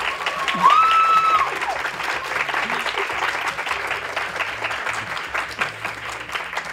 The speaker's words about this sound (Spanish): Podéis aplaudir si queréis.